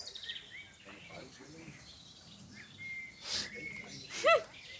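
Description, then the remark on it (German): Birds chirp and tweet in the background of an outdoor garden, with a few brighter, louder calls near the end. Voices murmur faintly underneath. “Das sind diesmal nicht meine Vögel, die da im Hintergrund zwitschern ja, hier in meinem Garten.”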